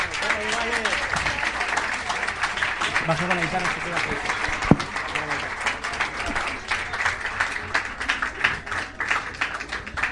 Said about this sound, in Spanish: Eh, bueno, vamos a darle un aplauso grande, por favor, de despedirlos. Gracias.